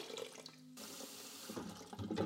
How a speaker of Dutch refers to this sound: Dat doe ik door ehm, warm water toe te voegen moet ongeveer 45 graden zijn. Ja, dan doe ik er ehm, twee keer zoveel water bij.